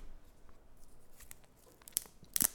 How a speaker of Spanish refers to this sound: Escuchen, escuchen. Podemos usar velcro también si, lo desean.